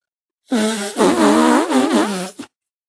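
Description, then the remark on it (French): Loud wet raspberry kisses blown against skin: a short buzzy burst followed by a longer sputtering one with a wavering pitch. No talking. “Où je te fais des bisous pétaradants.”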